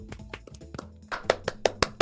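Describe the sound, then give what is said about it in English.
A few people clapping unevenly, with sparse soft claps at first, then sharper, louder claps in a quicker, ragged burst toward the end. No one speaks. “We're all clapping.”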